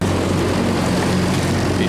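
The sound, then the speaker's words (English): A boat engine runs steadily as the boat approaches orcas for a swim, a loud, continuous low droning hum with a constant pitch and no breaks, mixed with broad rushing noise. “Perfect and switch off the engine.”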